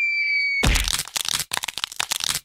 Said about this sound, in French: Monsieur Attier plonge à sa place et va s'écraser au fond du gouffre. Elle entend même le craquement.